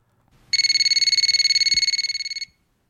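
telephone ringing

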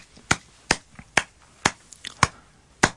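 one person clapping hands

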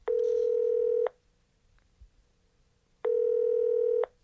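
telephone dialing tones

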